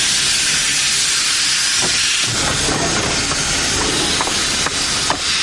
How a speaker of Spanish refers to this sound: Las ruedas del tren se detienen sobre los raíles.